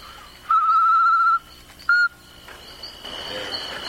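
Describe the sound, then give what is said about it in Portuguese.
Two clear, steady whistled notes of a solitary tinamou (macuco) call: a long, level tone followed after a pause by a brief second note, fairly loud against a quiet outdoor background. “Aqui tem uma chororocadeira de. de macuca, né? Tinamo solitário, né?”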